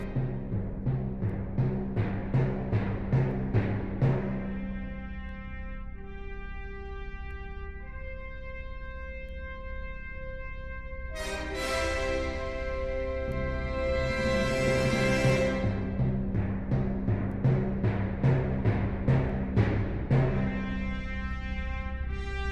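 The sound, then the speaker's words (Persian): Orchestral music from the film Odyssey, from the scene where a bone is thrown into space: rhythmic pounding drum beats under sustained chords open and close the passage, with a bright, swelling brass chord building in the middle. No one speaks. “موزیک فیلمش یه لحظه بشنویم”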